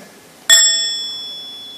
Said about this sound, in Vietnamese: phải chấm dứt cái lời nói của mình và phải chấm dứt luôn cái tâm và từ để mà nghe tiếng chuông